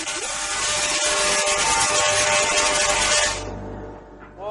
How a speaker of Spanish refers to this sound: Hace mucho ruido. Entonces, estamos generando luz. Sí, gracias al millón de voltios en el aire.